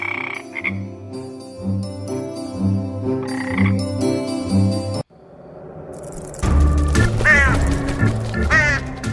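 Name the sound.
frogs croaking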